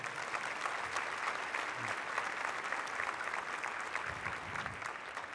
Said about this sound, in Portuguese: Cada vez que eu venho num culto aqui na nossa, nossa comunidade, eu fico tão impressionado com o trabalho da equipe de louvor, multimídia, som, recepção, estacionamento. Dá uma salva de palma para esse pessoal.